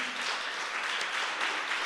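Steady audience applause fills the whole stretch, a dense crackling wash of many hands clapping at once with no single claps standing out and no voices.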